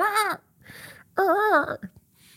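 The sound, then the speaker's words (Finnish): A voice mimics the call of an adult gull, a parent of a gull chick, with two loud, nasal, wavering cries that rise and fall in pitch. A short pause with faint breathy sounds separates them, with no speech. “Siellä lentää se lokkimutsi tai faija.”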